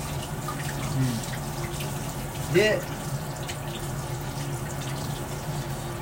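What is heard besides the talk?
running tap water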